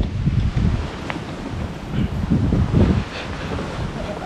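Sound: wind blowing outdoors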